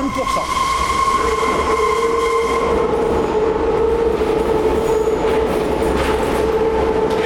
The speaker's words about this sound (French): Bah, ça, tu vois, c'est un bruit de, c'est un bruit de métro sur fer. Ouais. ouais. Un potin pareil, ça, ça peut pas tromper.